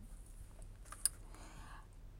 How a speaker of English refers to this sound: you could legit hear the paper rustling and my hair touching the clothes in my cupboard because I made it into a little makeshift studio.